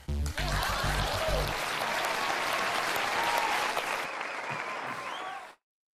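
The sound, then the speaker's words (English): A crowd breaks into loud, sustained applause with dense clapping and a few faint cheers, holding steady for about five seconds before cutting off abruptly. “We're we're making a podcast. Please clap.”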